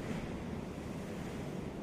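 Gentle ocean waves wash steadily onto the shore in a soft, continuous rush of surf, heard alone at a moderate, even level without distinct individual crashes.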